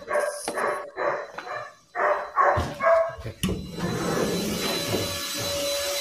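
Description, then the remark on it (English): A dog barks in a quick run of about six or seven sharp barks, then someone starts vacuuming with the dog around, a vacuum cleaner's steady, loud whooshing drone filling the rest. “well, I mean, I just, I, I just heard the dog.”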